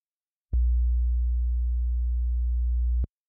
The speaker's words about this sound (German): Deswegen, es sei mir verziehen, es ist leider kein authentisches 60 Hertz Summen, das würde sich nämlich, Achtung, so anhören.